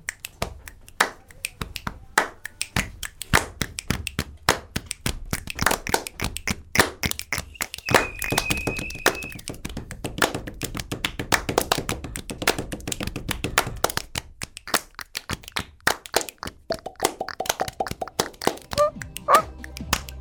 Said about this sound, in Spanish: Es chasquido, chasquido pecho, chasquido, chasquido palma. Lo hago, ¿eh?